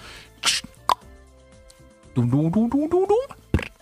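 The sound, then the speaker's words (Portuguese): A voice imitates a can of Monster energy drink cracking open: a short breathy hiss and a mouth click, then a rising vocal glide, ending with one sharp pop. “Rapaziada, não vou conseguir fazer o SMR porque eu já abri a latinha de Monster.”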